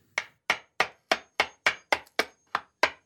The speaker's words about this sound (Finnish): Kakkakikkare etsi paniikissa jotain, millä koputtaisi Karin hampaita ja näki ikkunalaudalla remonttimieheltä unohtuneen vasaran. No tällä onnistuu.